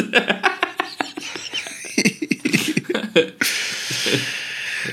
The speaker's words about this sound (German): geräuschmäßig kein großer Unterschied bei dem Gefiepe da. Meerschweine haben gesungen.